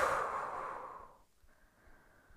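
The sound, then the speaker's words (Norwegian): A long, slow breath out during a breathing exercise, a soft airy whoosh that starts fairly strong and gradually fades over about a second before going quiet, with no talking. “Og pust ut.”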